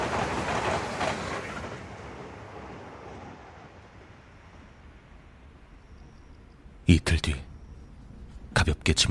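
A steady rumbling of a train on rails, heard aboard, that fades to a low drone, then sharp, loud metallic clatters burst in near the end.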